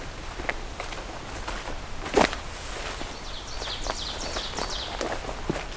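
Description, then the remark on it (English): Ovenbirds sing, a quick series of repeated bright chirping phrases, while footsteps crunch steadily on a woodland trail. “And we've got oven birds once again.”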